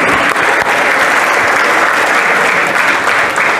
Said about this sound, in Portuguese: Só quem vive o melhor de Deus, aplauda ele, porque ele é digno.